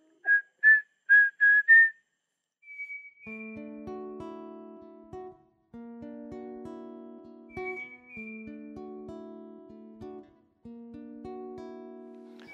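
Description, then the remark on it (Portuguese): Someone whistles a quick run of five short, shrill rising notes, imitating the whistle of the Saci folklore creature, then one longer held whistle, followed by steady layered tones with no talking. “Você, você imitou o Saci assoviando? É, assoviando só.”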